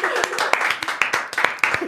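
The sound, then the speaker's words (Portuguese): A burst of hand clapping, roughly a dozen sharp, irregular claps over a couple of seconds, with voices talking and chattering underneath. “Vou aplaudir, vou aplaudir esse momento. Vamos aplaudir esse momento.”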